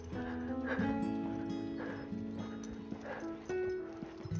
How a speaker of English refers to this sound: But at the moment, no, it's just Rooney's dog tags jangling.